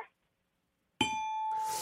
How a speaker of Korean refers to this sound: 재미있어야만 딩동댕입니다.